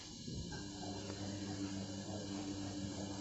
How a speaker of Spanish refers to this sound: Ese es el sonido de mi lavarropas me encanta lavar la ropa.